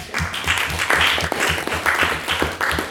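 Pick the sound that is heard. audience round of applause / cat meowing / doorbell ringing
audience round of applause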